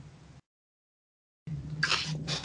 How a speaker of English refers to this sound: Sorry, I was taking a sip of water.